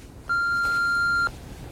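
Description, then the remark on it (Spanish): A single steady electronic beep, like an answering machine tone, sounds clearly for about a second against a quiet background, with no one speaking. “Cuando suene el pitido, ya sabes.”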